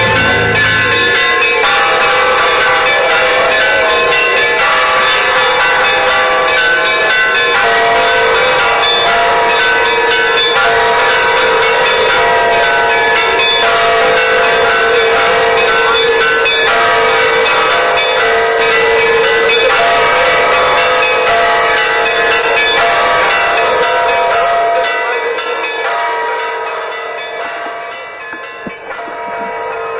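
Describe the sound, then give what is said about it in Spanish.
Church bells toll continuously in a dense, ringing peal, their overlapping strikes loud, sustaining for about twenty-five seconds before the sound thins and fades away at the end. “Así comenzamos con ese tañido de campanas tan especial, tan lindas, que siempre se usó en la humanidad para alejar lo malo y que viniera lo bueno, ¿no?”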